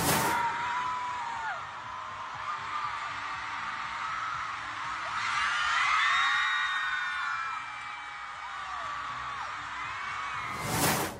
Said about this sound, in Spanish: así que escuchemos los gritos de sus fans cuando esto pasó.